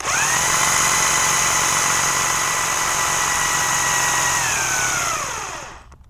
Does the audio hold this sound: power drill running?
yes